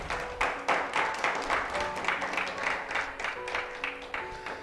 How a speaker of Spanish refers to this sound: Denle un fuerte aplauso a la pastora